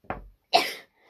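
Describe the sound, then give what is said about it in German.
A single sharp sneeze: a short lower burst followed by a bright, hissy explosive release, then quiet. “Gesundheit. Gesundheit.”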